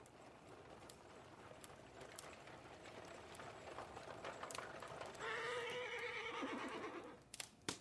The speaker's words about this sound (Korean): 그때 밖에서 마차 소리가 들렸다. 창밖을 내다보던 홈즈가 말했다. 왓슨, 사륜 마차가 도착했어. 모스턴 양이 마차 안에 있군.